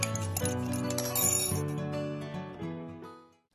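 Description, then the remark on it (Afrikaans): A short jingle announcing the Coffee Date radio show segment: bright, chiming tones stepping through a few sustained notes over a warm low backing, then fading out quickly at the end. No one speaks. “En as jy daai deentjie hoor, dan weet jy die tyd het aangebreek vir koffiedייט”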